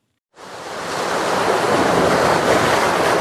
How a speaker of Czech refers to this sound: Několika metrové vlny tříštící se o útesy a zaplavující nábřeží. Pro jedny důvod rychle se schovat domů, pro druhé naopak adrenalin a snaha přiblížit se co nejblíž rozbouřenému moři.